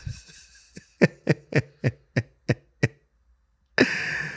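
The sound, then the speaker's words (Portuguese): Repeated sniffling, about eight short sharp sniffs in a quick, even rhythm, then a brief pause and a longer burst of breathy, hissing noise at the end. “Ah, coisa boa começar um bate-papo fungando, não é mesmo?”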